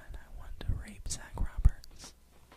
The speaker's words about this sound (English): What? Did you hear that? I just sound I just sounded like a little like a whisper or something. Yeah, but like it was definitely a whisper. I don't know what it was.